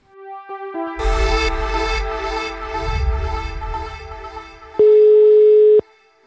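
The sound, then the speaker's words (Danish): As a phone call is placed to a man, a telephone line tone plays through a few seconds of busy electronic noise, ending with one loud, steady beep about a second long. No one speaks. “Jeg sidder og tænker, om vi ikke bare skal øh, ringe ham op.”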